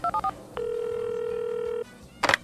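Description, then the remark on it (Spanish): Three quick keypad beeps from a telephone being dialed by a man calling his boss, followed by a long steady electronic tone and a brief rustling click at the end, clear with no talking. “Pronto un chino le llama por teléfono a su jefe y le dice...”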